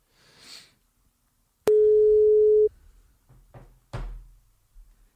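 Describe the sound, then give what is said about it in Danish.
A telephone ringing tone for an outgoing call to Rosa Lund, legal affairs spokesperson of Enhedslisten: one loud, steady one-second beep, followed by a few soft clicks and knocks from handling the phone. No one speaks. “Nu ringer jeg til Rosa Lund.”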